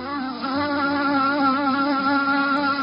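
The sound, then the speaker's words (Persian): A steady, high-pitched mosquito whine drones for a few seconds in a bedroom, wavering slightly in pitch as it hovers, with no voices present. “ایول یعنی واقعا به پشه اتاقم میشه گفت یه دوست واقعی همیشه تو سختترین لحظات و وقتی که ایده ای ندارم میاد و رو سقف میشینه دقیقا روبروی من اصلا این پشه منبع الهام منه”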